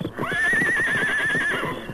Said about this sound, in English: You got horse you ride. Yes, I got a horse.